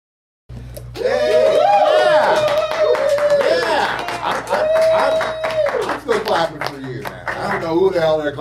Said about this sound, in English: But I'm clapping for you. I'm clapping for you.